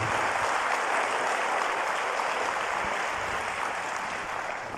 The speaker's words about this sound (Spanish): Dele un aplauso al Señor, por favor, ahí donde está.